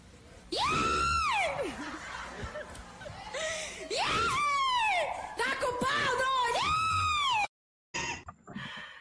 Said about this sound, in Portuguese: Pois beleza, então tem até uma homenagem aqui para ti que prepararam aqui, ó. O close, o close. Como é o seu, a sua vaia.